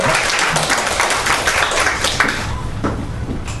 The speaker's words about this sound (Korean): 하나님께 영광의 박수를 올립시다.